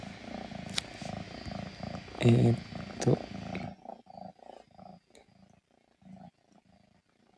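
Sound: cat purring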